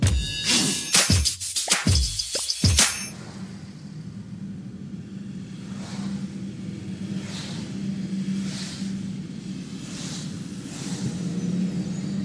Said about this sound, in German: Deswegen bin ich froh, dass ich mich jetzt ins Vierrad setzen konnte und jetzt erstmal ganz lange, ganz weit wegfahren kann. Und dabei Musik höre.